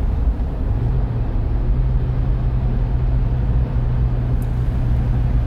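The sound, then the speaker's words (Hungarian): A car's engine rumbles steadily and loudly as the car reaches its destination and parks with a screech in front of the house at Andrási 60, a low continuous drone with no voices. “Gépkocsi hat odaérve a célja felé, Andrási 60 háza előtt csikorogva leparkolt.”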